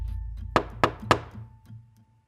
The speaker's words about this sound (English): I might knock on the door, and I might say,